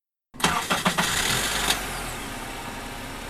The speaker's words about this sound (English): his car, that sometimes doesn't start,